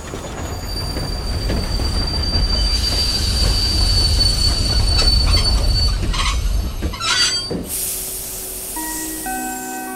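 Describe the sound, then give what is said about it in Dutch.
A steam train rumbles in and brakes as it enters Leeuwarden station, with high-pitched wheel squeal building over the heavy rolling noise, then a loud burst of hissing steam and big clouds of steam as it comes to a halt. “Met grote stoomwolken en een hoop gesis rijdt de trein het station binnen en komt tot stilstand.”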